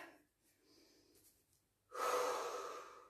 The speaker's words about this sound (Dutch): De laatste oefening. De laatste oefening. Oké. Okay. Even ademen.